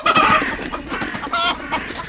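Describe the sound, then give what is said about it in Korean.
Chickens clucking in a busy, overlapping chorus, several birds cackling in quick irregular bursts, with no talking. “닭도 있네요.”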